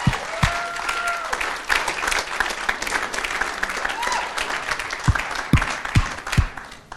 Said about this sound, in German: Hey, lass uns der Band mal einen fetten Applaus geben. Das war der absolute Hammer, hey.